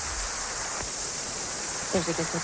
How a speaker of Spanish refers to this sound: Bueno, Pero A un silbido más bien como de manguera eh, aprisionada. Claro, claro, como cuando no puede pasar el agua y pasas un chorrito así finito.